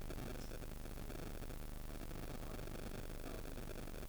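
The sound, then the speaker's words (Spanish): A steady, dense crackle of electrical interference fills the whole stretch, a continuous buzzing static like a faulty cabled microphone, with no voices over it. “Está haciendo interferencia un micro de cable.”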